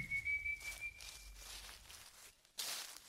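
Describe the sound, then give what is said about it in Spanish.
A lone, eerie human whistle holds one thin, high note and fades away into the distance after a second or so, leaving soft shuffling sounds and a brief hiss near the end. “El silbido ya no se escucha cerca, ahora suena lejos, cada vez más lejos, hasta finalmente apagarse.”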